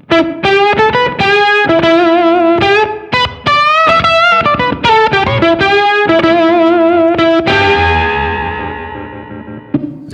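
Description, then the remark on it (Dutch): Electric guitar played through an octave fuzz pedal set fairly clean, picking a quick, choppy riff of bright, thick notes, then letting a final chord ring out and slowly fade. “Eh, die een hele clean octave kan, eh, oh, kan doen. De, dus er zit een fuzz in en, en je kan hem heel clean instellen.”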